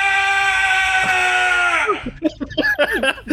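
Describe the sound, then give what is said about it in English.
A person lets out one long, loud, strained yell held for nearly two seconds, then breaks off into quick, choppy vocalizing that sounds like breathless talk or laughter. “You push with all your might, and you yell.”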